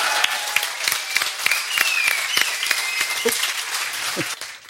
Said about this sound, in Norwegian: Og gratulerer med 50-årsdagen. Stor applaus